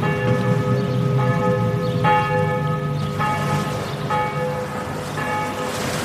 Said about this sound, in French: Alors cette ville, eh bien quand il y a des tempêtes, on entendrait les cloches sonner.